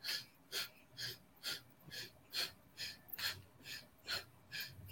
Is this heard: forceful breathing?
yes